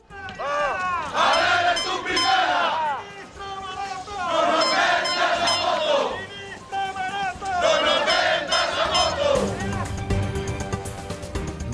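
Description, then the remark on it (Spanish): A crowd of protesters chants and shouts against ministers Rivera and Maroto in loud rhythmic bursts, voices rising in waves with brief lulls between, a dense babble of many people underneath. “Durante la protesta han arrojado huevos con pintura y papel higiénico, han exhibido féretros y han coreado gritos contra las ministras Rivera y Maroto.”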